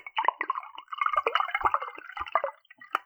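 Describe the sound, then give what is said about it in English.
Wine being poured into a cup, a bubbly, splashing stream with uneven glugs and drips that stops and starts for a few seconds, with no voices. “It was me pouring more and more wine into my cup.”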